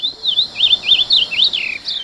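A songbird sings a continuous, rapid warbling phrase of rising and falling whistled notes, clear, somewhat like an ultramarine grosbeak's song, with no voices present.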